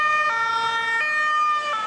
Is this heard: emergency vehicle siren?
yes